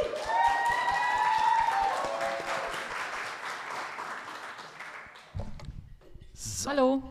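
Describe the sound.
A crowd applauds loudly with dense, sustained clapping for several seconds, mixed with cheering voices, before it fades out and a person starts speaking.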